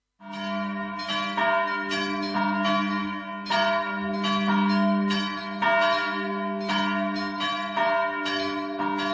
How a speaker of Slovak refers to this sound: Zaujímavý zvuk majú aj zvony z kostola Najsvetejšej Trojice v Prešove, časť Solivar.